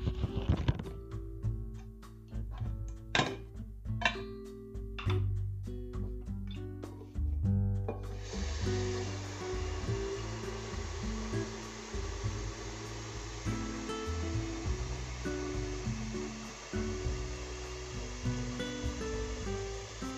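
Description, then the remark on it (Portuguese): A few hollow clunks and knocks as a pot or kettle is handled, then a steady rushing hiss of water filling it to be put on to boil, continuing to the end, with no talking. “coloquei água para ferver.”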